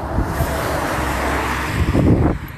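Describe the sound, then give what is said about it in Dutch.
A continuous roar of many heavy trucks on a road, heard while walking along it out of a forest, deep rumbling underneath, swelling louder near the end as one passes, then easing off. No one speaks. “Lekker, ik loop nu uit het bos inmiddels langs de weg. Hoor je wel, veel vrachtwagens.”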